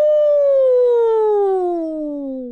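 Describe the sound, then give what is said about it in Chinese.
A single long, drawn-out 'wooo' that slides steadily downward in pitch, a voice imitating howling wind, loud throughout and tapering off slightly at the end. “风把一切声音吞进来，而后又吐出去。使一切变成惊异可怕的叫唤。”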